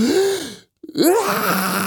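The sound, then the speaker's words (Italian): A voice imitates a newborn's first gasping breath: a strained, groaning vocal, a brief silence, then a sharp breathy gasp that slides into a wavering moan, fairly loud. “non lo fanno quando gli tagliano il cordone umbilicale, lo fanno i bambini una volta che sono usciti e fanno una roba tipo”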